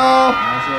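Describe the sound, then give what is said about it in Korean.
A large crowd of fans waiting outside on a hot day shouts a greeting together to the visiting group in one loud, sustained burst of massed voices, the pitch dipping briefly partway through the short cheer. “와, 어, 밖에 팬분들이 정말 어마어마하게 아~ 오셨어요.”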